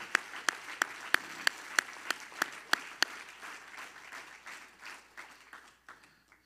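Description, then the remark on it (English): A Grace Church audience claps hands to the Lord at a morning service, in unison, sharp rhythmic claps about three per second over a steady wash of scattered clapping, the beat fading into looser applause that tapers off. “Everybody clap your hands to the Lord this morning.”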